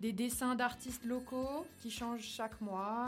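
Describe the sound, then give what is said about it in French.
Background music with a ringing, telephone-like tone, coming from inside the item being described rather than from a phone, plays steadily beneath a person talking, at low level throughout the short stretch of continuous speech. “C'est le téléphone de quelqu'un ou c'est la, musique dedans C'est la musique dedans.”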